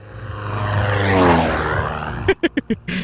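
A house music track playing on Census Radio opens with a swelling, droning synth that rises and falls like a passing aircraft, then breaks into a run of punchy, evenly spaced rhythmic hits.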